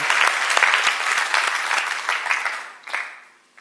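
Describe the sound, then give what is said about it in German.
An audience breaks into dense, steady applause for God, the Father in Heaven, many hands clapping together at an even level, then thinning out and fading away over the last second. “Sollen wir ihm mal einen Applaus geben?”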